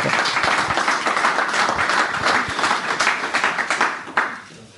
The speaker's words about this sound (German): Ja, vielleicht ein kleiner Applaus an der Stelle.